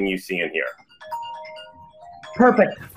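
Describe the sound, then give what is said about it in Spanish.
A short electronic telephone ring, a steady tonal chime lasting about a second, sounds between bursts of people talking. “Momento perfecto. Responde el teléfono.”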